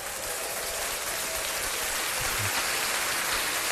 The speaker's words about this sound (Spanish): Viste, con aplausos te despedimos